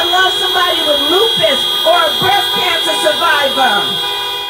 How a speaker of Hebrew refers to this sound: טוב, זה קטע קצרצר, זה הפסקול של הקמפיין הדמוקרטי, נאומים וצפצופי מכוניות, זה נערך במגרש חניה מאוד גדול של איזשהו קומיוניטי קולג', קולג' מהפשוטים שיש כאן.